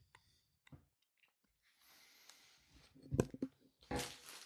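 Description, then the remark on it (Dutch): Chewing of chocolate: scattered soft mouth clicks at first, then louder, crunchy bites and smacking sounds building toward the end, with no one talking. “Dat is gewoon bunte chocola.”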